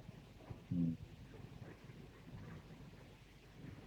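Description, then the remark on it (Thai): Soft, steady rain patters as a constant low hiss, with a brief muffled low thump early on and no other sounds standing out. “พอดีแล้ววันนี้ฝนตก พอดีเลยเย็นทำสมาธิเลย”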